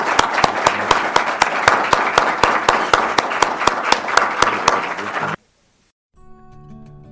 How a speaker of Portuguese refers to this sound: Então, eu só pediria ao final uma salva de palmas para o nosso Leonardo Coutinho. Muito obrigado.